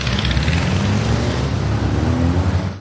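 A car engine revs steadily and loudly for a few seconds, its deep rumble rising slightly in pitch before cutting off abruptly.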